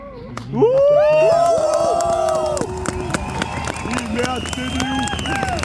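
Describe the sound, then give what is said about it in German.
A loud crowd erupts in a mix of clapping and drawn-out booing and shouting, the noise swelling suddenly and then continuing as dense, overlapping voices throughout. “Die einen haben geklatscht, die anderen haben geboot.”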